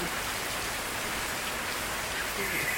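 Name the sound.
rain falling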